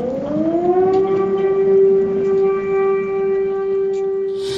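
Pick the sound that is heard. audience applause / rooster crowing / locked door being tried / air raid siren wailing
air raid siren wailing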